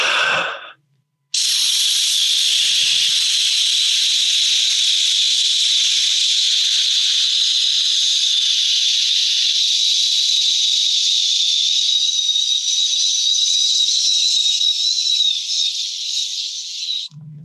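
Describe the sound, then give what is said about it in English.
A voice imitates a white noise sound machine, the kind used to help kids sleep, with one long, steady, airy hiss lasting about sixteen seconds, loud and unbroken, starting after a brief breathy burst and no words spoken. “Um, we have gotten accustomed to having them sleep with a sound machine you know, and we talked about this back in the day.”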